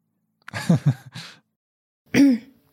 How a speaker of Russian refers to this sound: Я говорю, секунду, ты вот это вырежешь, я, мне надо прокашляться, если честно.